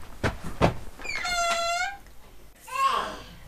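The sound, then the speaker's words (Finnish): The door of a yellow village hall in Mankila swings open with a drawn-out, high squeaky creak lasting about a second, after a couple of soft knocks; a brief child's voice follows. “Keltaisen kylätalon ovi on auki.”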